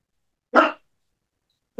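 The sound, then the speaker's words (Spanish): A dog named Frank barks twice, fairly loud, with a short sharp bark followed by a second that is cut off at the end. There is silence between the barks and no talking. “Pues primero quiero que sepas que Frank también te dio la bienvenida, por eso estaba ladrando.”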